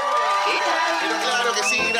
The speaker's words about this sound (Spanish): Gracias por estos aplausos que nos levantan el ánimo, aunque son grabados. La gente que se agolpa. Es feo decir que son grabados, ¿no?